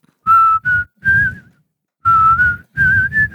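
Someone whistles the melody of a rock song: two short phrases of clear, sustained, slightly wavering notes separated by a brief pause, loud and alone with a low rumble beneath.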